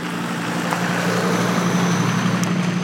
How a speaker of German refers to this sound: Achtung, es fährt hier nochmal ein Auto an mir vorbei. Ich hoffe, das ist nicht zu laut.